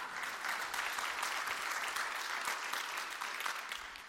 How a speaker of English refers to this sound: I, I didn't say that for a clap, but it's encouraging.